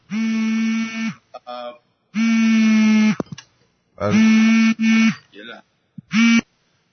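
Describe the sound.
A mobile phone vibrates in loud, buzzy bursts of about a second each, repeating four times with short pauses between, while a voice briefly speaks in the gaps.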